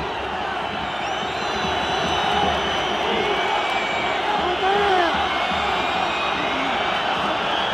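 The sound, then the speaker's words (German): A huge stadium crowd at Camp Nou roars continuously, with shrill whistles piercing the din in a sustained, loud wall of protest because a Barça player lies on the ground near the Espanyol corner flag and Espanyol did not play the ball out. “Es ist so laut, ich höre mein eigenes Wort nicht. Der Grund fürs Pfeifkonzert ist aber natürlich, dass ein Barca-Spieler in Nähe der Espanyol-Eckfahne auf dem Boden liegt.”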